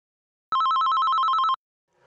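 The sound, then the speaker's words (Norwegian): A telephone bell rings in one continuous burst of about a second, a rapid metallic trill with bright harmonics, loud, then stops into near silence. “Uh, men du, um, jeg fikk nettopp en uh, telefon her.”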